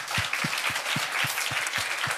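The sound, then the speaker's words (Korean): A crowd applauds steadily, offering the applause to God after a testimony. Many hands clap in a dense wash at a constant level, with a regular low thumping pulse running beneath it throughout. “하나님께 우리 모두를 씻어주신 걸 믿고 함께 박수를 올려드립니다.”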